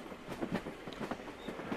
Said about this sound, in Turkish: Bak, tren tünelden çıktı. Görüyor musunuz?